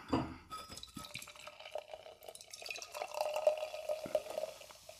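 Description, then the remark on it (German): Verdant 'Maybe One More Psy' beer of 8% being poured into a glass, a steady gurgling, splashing stream with a faint ringing tone from the glass, lasting several seconds with no one talking. “Den Schaum habe ich nicht so gut hingekriegt.”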